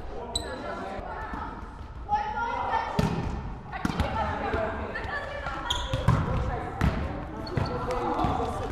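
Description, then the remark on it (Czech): Volleyballs smack and thud repeatedly as female players warm up at training, passing them back and forth in pairs, the hits landing at irregular intervals while voices chatter in the background. “Rozpinkávají se teďka ve dvojicích a za malou chvíli budou přecházet na cvičení.”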